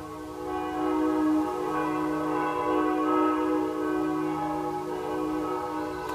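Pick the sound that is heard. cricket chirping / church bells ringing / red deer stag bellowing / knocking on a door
church bells ringing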